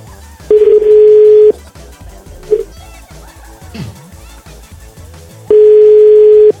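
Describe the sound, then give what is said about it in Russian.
Two long, steady telephone ringback tones, each about a second, spaced several seconds apart, sound clearly over faint background chatter and children's voices. “Это я опять что то много гудков.”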